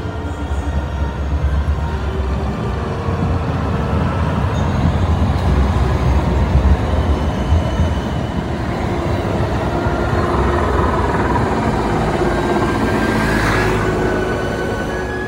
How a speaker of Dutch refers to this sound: Ja, wacht even. Oh, wacht. De tram die komt eraan. Even wachten staan.